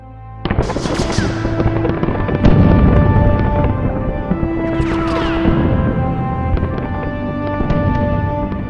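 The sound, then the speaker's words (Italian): A loud, continuous war barrage of explosions from aircraft bombing the surroundings of Teruel in Aragon, heavy booms overlapping with sharp cracks and whistling tones, with no pause and no voices. “Armi russe, carri armati, mezzi blindati, aerei che bombardano i dintorni. Un inferno.”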